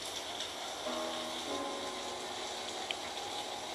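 A steady, hissing wash of passing vehicle noise, added as a sound effect, with a brief droning tonal swell near the start; no one speaks.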